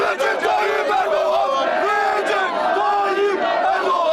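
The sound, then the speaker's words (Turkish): A large crowd chants slogans in loud, rhythmic unison, greeting President Erdoğan as he leaves the Misak-ı Milli Tower on the anniversary of Atatürk's death; many voices shout together in rising and falling waves with no pause, a dense roar throughout. “Atatürk'ün ölüm yıl dönümünde Cumhurbaşkanı Erdoğan Misak-ı Milli Kulesi'nden çıkarken sloganlarla karşılandı ve o görüntüler büyük ses getirdi.”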